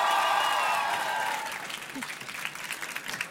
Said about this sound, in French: Encore un peu plus d'applaudissements, s'il vous plaît.